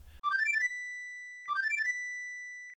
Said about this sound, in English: Traveling back to the light world and entering the bar, the boy's father perks up upon hearing the flute music.